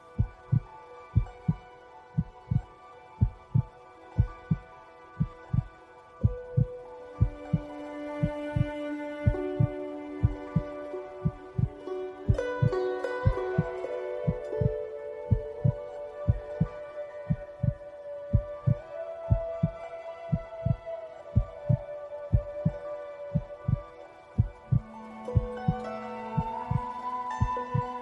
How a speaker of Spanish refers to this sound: Siente las pulsaciones de tu corazón.